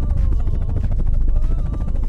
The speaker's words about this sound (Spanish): 6 de la mañana y el comandante va solo en helicóptero.